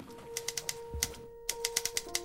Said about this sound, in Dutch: Wat er ook voor zorgt dat op het moment dat ik mij op iets aan het focussen ben, zoals op het werk, ergens eh, aan mijn bureau een mail zit te typen